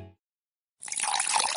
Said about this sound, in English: You hear that? That's the sound of healthy, safe water from the tap.